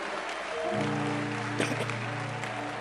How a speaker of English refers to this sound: Clap your hands for the Lord, somebody.